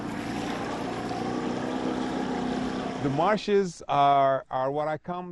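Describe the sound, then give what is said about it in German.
A boat motor drones steadily over rushing water in a marsh in the hours before sunset for a few seconds, then fades as a man begins speaking. “Alle sind zurückgekehrt in die Boote.”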